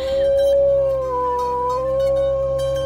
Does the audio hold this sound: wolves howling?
yes